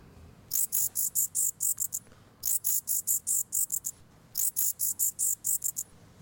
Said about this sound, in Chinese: 好像是蝙蝠唯一，我们不用降频转译的方式，我们就可以听到蝙蝠的声音。这个是汤氏无尾果蝠，是假规矩的这个秘宝了。 这都不是那个超音波的声咯。